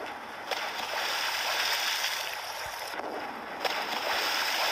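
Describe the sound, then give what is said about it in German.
Four cannonballs in a video game splash into water in a few sharp bursts over a steady wash of rushing, hissing water noise. The impacts are moderately loud, and no one speaks. “Auch sehr schön dieses Wasser einschlagen wollen. So, alle vier sind ins Wasser gegangen.”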